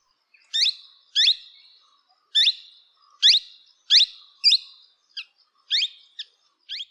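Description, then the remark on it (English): A plum-headed parakeet gives a series of shrill, sweet, rising calls, about nine separate notes spaced irregularly, clear with no other sounds around them. “Very much a direct reference to the shrill but sweet call, tui.”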